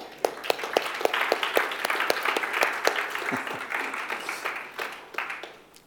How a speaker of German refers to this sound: Also, wir haben geklatscht, falls es nicht gehört hast